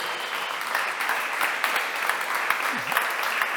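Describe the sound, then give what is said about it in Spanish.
A crowd applauds the worship team steadily throughout, a dense wash of many hands clapping at a fairly loud, even level with no pauses or voices rising above it. “Estamos preparando un aplauso para el equipo.”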